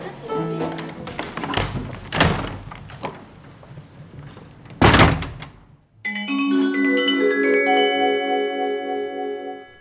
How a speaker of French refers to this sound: Les portes sont différentes à chaque étage. Elles ont un bruit spécifique, comme par exemple en salle 119, la porte grince toujours.